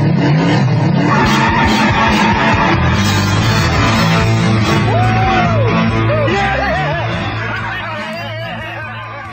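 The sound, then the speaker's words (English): A loud, throaty Hemi car engine roars as the car takes off from a red light in a 1970s commercial, with brief squealing sounds in the middle and the noise tapering off toward the end. “Of course, that was the commercials around the 70s of a car at a red light.”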